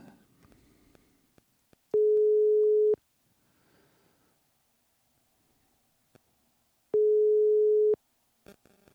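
A steady telephone ringing tone of an outgoing call to the first caller on a list sounds twice, each pure hum lasting about a second with a long pause between, loud and clear over a quiet background with faint clicks.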